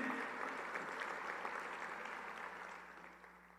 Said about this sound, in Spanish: Denle un aplauso a Dios porque Él es bueno de verdad.